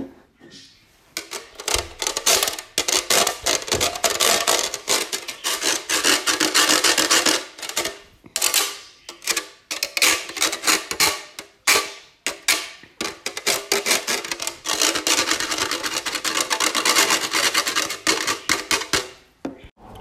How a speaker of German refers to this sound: Als nächstes haben wir endlich die Käsereibe.